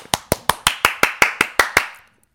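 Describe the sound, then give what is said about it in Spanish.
A single person claps about ten times in a quick, steady rhythm on the show No sé dime tú, each clap a sharp, bright smack that rings out briefly before the next, with no voices over it. “Aplaude”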